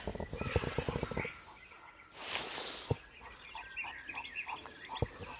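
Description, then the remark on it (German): A hedgehog grunts and snuffles, starting with a quick run of rhythmic duck-like grunts, then a sharp huff, a couple of clicks and softer scattered snorts, with no voices. “Ah, ein Igel.”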